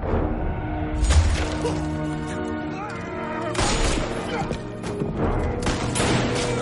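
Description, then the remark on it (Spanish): Several sharp bursts of gunfire erupt in volleys, loud, over a dense, sustained tonal backdrop, with brief lulls between the clusters of shots, as Hansi shoots several of the Gerhardt men in a shootout. “Hansi mata a varios hombres de los Gerhardt y va hacia las escaleras.”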